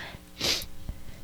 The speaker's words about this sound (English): Bless you. Thank you. Thank you.